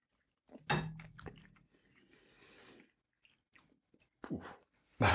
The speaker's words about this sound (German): rein in die Futterluke und äh, kauen.